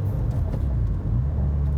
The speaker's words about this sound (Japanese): なのでこうアクセルとギアチェンジの音がノイズとして入るのかなとアクセルの音はね入んないですけどこうエキゾーストのアクセルを踏んだ時のエキゾーストの音とあとはガチャガチャっていうギアチェンジしてる時の音がノイズになって入ってるんじゃないかなと思ってます。